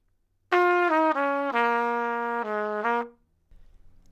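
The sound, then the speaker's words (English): A solo instrument plays a smooth descending pentatonic phrase starting on F: F, E flat, D flat, B flat, then down to A flat and back up to B flat, about six sustained notes, loud with no talking. “And then at the end, we just put in a little extra bit that goes down to the A flat and back to the B flat.”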